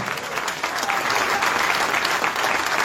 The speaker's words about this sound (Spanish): Denle un aplauso al Señor, aleluya.